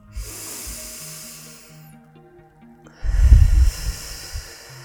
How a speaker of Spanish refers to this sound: vamos a comenzar haciendo tres respiraciones profundas, inhalando por la nariz y exhalando por la boca. Y así vamos a ir sintiendo cómo nos centramos a través de la respiración antes de empezar. Vamos a inhalar y exhalar por primera vez.